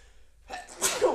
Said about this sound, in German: Gesundheit. Danke.